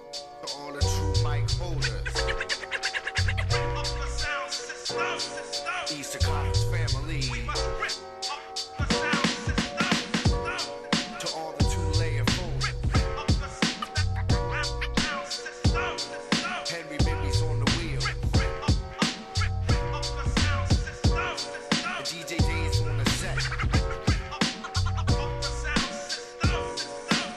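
A loud hip-hop instrumental with heavy booming bass hits in a steady looping pattern, crisp drum hits and layered melodic samples, playing continuously without vocals.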